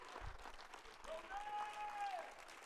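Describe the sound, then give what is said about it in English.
An audience bursts into sustained applause, many hands clapping in a dense, steady wash, with a thin tonal whistle or feedback tone rising briefly through the middle. “Now give him a hand clap as if you believe that.”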